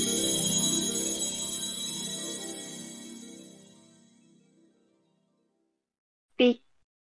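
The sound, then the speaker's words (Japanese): A melodic phone ringtone chimes out clearly, then fades away over several seconds into silence, followed by a brief burst of a voice near the end. “あれ急に電話してきてどうしたの”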